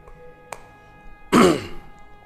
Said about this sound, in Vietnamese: có khi quý vị thấy những đức mà chia sẻ hai bài này có khi mà ho quá trời luôn tại gần cổ bị viêm cổ á